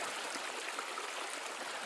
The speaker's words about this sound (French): il tomba dans la rivière en éclaboussant Prosper